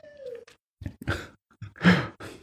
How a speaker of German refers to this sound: der Hund sehr quietschig noch ein bisschen. Er wurde gerade gebadet. Ja, das findet das er scheiße, dass er gebadet wurde. Er muss uns jetzt noch zeigen, wie scheiße er das immer findet.